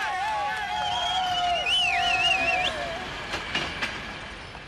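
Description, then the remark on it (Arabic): A train coming from Czech territory rumbles along steadily into East Germany, where it stops, while drawn-out horn tones sound over it, one briefly wavering like a siren, followed by a few clattering knocks as it moves. “وفعلا مرق القطار اللي جاي من تشيك ووقف بألمانيا الشرقية”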